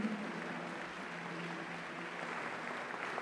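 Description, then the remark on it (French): An audience applauds a brass band, a dense, steady wash of many hands clapping that holds at an even level for the full three seconds, with a faint low murmur underneath. “Vous pouvez les applaudir à nouveau.”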